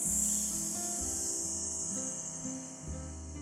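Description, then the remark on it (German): A person hisses a long, steady "sss" like a snake, the sound of the lungs, during a breathing exercise with hands opened above the head, held without a break for several seconds, over soft, low background music. “einfach nur wie eine Schlange das ist der Ton, den die Lungen machen.”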